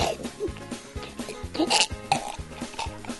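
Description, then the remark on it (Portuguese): A voice imitates a man choking on his dentures, making a run of harsh, rhythmic guttural gasps and strained throat sounds, fairly loud, with no spoken words. “Cuspiu, cara, ele tinha se engasgado com a dentadura dele, cara. A dentadura dele esse negócio de ficar puxando, a canetaduras saiu, foi para na guela e ele.”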